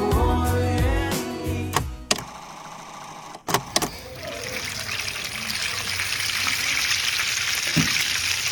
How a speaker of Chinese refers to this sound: 你听到的这个声音呢，是我过年前家里面一定会有的一个重要环节，就是炸煎堆。煎堆是什么呢？是广东传统的一个贺年食品。